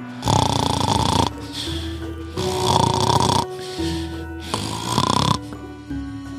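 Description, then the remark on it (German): Loud, rasping snoring of a wolf lying asleep on a meadow, three long heavy snores in a steady rhythm, each followed by a quieter, droning breath in between. “Nun gingen sie beide hinaus und fanden den Wolf schnarchend auf der Wiese liegen.”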